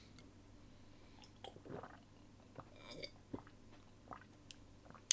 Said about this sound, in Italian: Mo mi bevo un po' d'acqua perché già sto a ah, sec- sec- mi sto seccando, mi sto seccando.